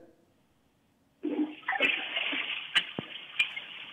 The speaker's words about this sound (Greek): Ακούγεται κάποιο παραλία, δεν ξέρω που είναι. Νερά, ακούγονται, τι ακούγονται.